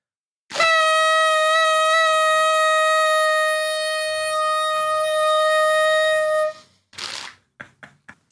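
A loud, steady horn toot blares for about six seconds on one unwavering pitch, then cuts off, followed by a short burst of noise and a few quick clicks.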